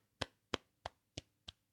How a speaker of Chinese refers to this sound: 还有就是鼓掌的时候，你鼓掌，哪只手在上面？